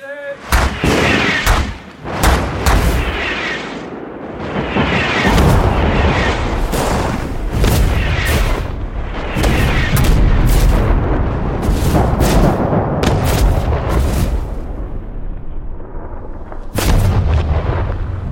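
Heavy artillery explosions from a regular army bombardment of the Kaldia district in February 2012 boom repeatedly over about eighteen seconds, loud and rumbling, with sharp cracking bursts layered over a constant low roar of bombardment.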